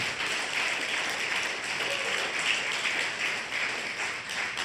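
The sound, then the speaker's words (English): An audience applauds steadily as a clap offering during a worship service, dense overlapping claps at a constant level for several seconds, with no voices standing out. “Now give them a clap offering.”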